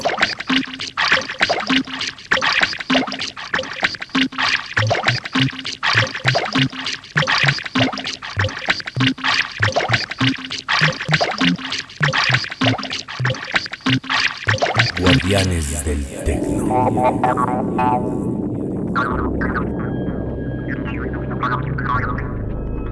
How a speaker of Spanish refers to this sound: música generada a partir de gráficos en una cinta de 35 milímetros, tocada en un Oramix